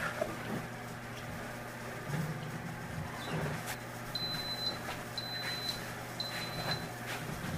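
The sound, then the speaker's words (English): Three evenly spaced, high-pitched electronic beeps, each about half a second long, from an Instant Pot pressure cooker timer as the cooking time runs out, over a steady low appliance hum and faint background rumble. “Okay, you heard that beeping noise. That means time is up.”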